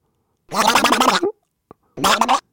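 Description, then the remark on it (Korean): A person imitates Donald Duck's voice for an imitation contest, in two raspy, gargling bursts of squawky babble, separated by a brief pause and a single faint click. The imitation is fairly loud and heard alone. “평상시에 도널드 덕이랑 너무 똑같다.”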